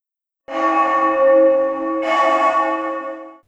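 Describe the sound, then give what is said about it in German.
A tower clock bell, heard from far away, strikes twice, the second blow landing while the first still rings, each a deep, resonant clang that hangs in the air and fades slowly. No voices. “Von weit her hörte man die Turmuhr schlagen.”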